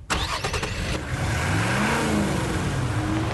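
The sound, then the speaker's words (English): The 317-horsepower V8 engine of a 2015 Nissan Titan pickup truck cranks and roars to life, then revs up loudly and steadily, its deep rumble climbing in pitch, with no one talking. “It's our biggest, baddest, most capable pickup truck that sports a beefy 317 horsepower from a massive V8 engine”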